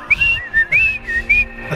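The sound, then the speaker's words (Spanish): A person whistles a bird-like tune, a series of short chirping notes with rising and falling pitch, fairly loud and alone, imitating a small bird. “Él va a llegar a comunicarse en forma de pajarito.”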